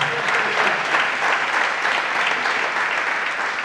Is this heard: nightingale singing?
no